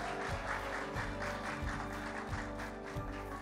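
Sustained audience applause welcoming the evening's preacher, a dense and steady wash of clapping at an even loudness for several seconds, with a regular low thumping pulse running underneath.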